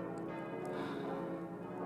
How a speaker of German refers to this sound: Das wohl glockenreichste Stahlgeläut Bayerns. Sieben Glocken hängen im Glockenstuhl, allesamt 1948 gegossen beim Bochumer Verein,